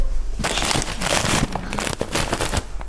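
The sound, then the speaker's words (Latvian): Paper bags used for storing this year's harvested tea are handled and crinkled, a busy run of dry rustling and crackling bursts lasting a few seconds, with no one speaking. “Te papīra maisos, tad jums glabājas tējas.”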